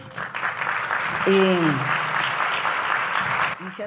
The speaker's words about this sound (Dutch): Dank jullie wel. Dank jullie wel voor jullie applaus hier van de broeders die hier bij me zijn. Dank jullie wel.